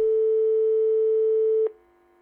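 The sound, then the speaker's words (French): A telephone ringing tone heard while a call is placed: one steady, loud electronic tone holding for about a second and a half, then dropping to a quieter, fainter tone. No voices. “il donna un coup de téléphone rapide à Kalana”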